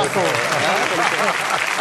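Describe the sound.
An audience applauds steadily for about two seconds, a dense, even patter of clapping with people's voices and chatter mixed in underneath.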